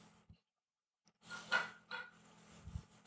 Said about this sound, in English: Now, if you do hear background noise, once again, that is my cats. They are, for some reason, super hyper right now, and I can't figure out why. Because usually they're really, really timid and, and shy and low energy.